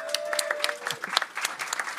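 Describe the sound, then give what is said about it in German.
Audience applause for a birthday: many hands clapping in a dense, steady patter that holds for about two seconds at a fairly even, moderate loudness, with no talking. “Happy Herzlichen Birthday! Applaus.”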